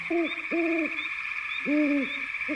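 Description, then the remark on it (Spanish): An owl hoots four times in an uneven rhythm, each call a clear, mellow tone, over a steady high-pitched insect-like drone. “Tal vez mediante el zarpazo invisible de una intuición momentánea tal vez gracias a una lógica espera, ya que siempre nos imaginamos el búho como un sujeto inmóvil, introvertido y poco dado a las efusiones cinegéticas de persecución y captura.”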